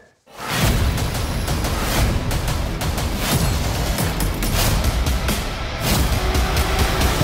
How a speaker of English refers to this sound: All right, everybody, you were just listening to the trailer for Army of the Dead, and the story is as follows. After a zombie outbreak in Las Vegas, a group of mercenaries take the ultimate gamble by venturing into the quarantine zone